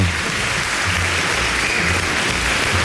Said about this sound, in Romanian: Aplauze. Încă o dată.